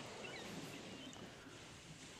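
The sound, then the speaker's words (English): A steady, hissing wash of ocean waves on a beach, fairly soft and continuous with no distinct breaks, blended with a breathy wind-like rush and no voices. “I found the ocean.”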